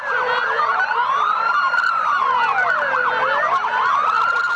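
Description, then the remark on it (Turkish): Several police sirens blare at once from a motorcycle convoy formed with 101 police officers on Bağdat Avenue, overlapping slow rising-and-falling wails with quick yelping bursts, loud throughout, with no voices. “Ardından da 101 polisle birlikte Bağdat Caddesi'ne motosikletli kortej oluşturuldu.”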